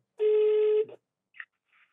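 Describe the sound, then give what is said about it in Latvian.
A single loud, steady telephone ringing tone lasts just over half a second, followed by a couple of faint, brief electronic blips. No one speaks. “Klau, man liekas, ka mums ir jāzvan tagad”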